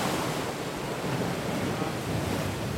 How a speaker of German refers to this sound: Ruhe? Hier nicht. Nur das Meer übertönt das Geschnatter der Badegäste.